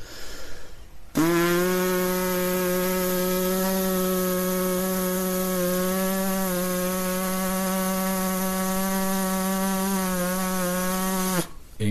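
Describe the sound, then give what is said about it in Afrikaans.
A brass player's lip buzz, an attempt to demonstrate a stable buzzing sound, holds one steady, low, raspy pitch for about ten seconds, starting and stopping abruptly, with no talking over it. “So om daai buzzing klank stabiel te kry.”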